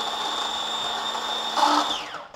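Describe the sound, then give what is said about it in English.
A small electric grinder whirs steadily as it grinds garlic and sea salt for pesto, a high motor whine with a low hum beneath, then briefly intensifies before winding down. No one speaks. “Grinding it up again.”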